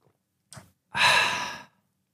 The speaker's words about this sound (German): Äh, und Schwarztee ist aber auch in der Form von Genuss. Also ich trinke da jetzt einfach mal.